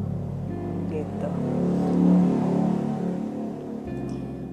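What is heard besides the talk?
passing motorcycle engine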